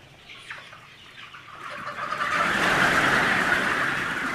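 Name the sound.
hen clucking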